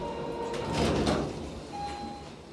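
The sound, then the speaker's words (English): Elevator doors slide open with a smooth mechanical whoosh, set against a steady hum, with a faint electronic tone before and after the motion. “He takes the elevator, heading them off.”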